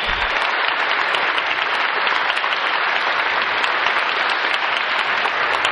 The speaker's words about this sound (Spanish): Denle un fuerte aplauso aquí a los angelitos que están frente a mí.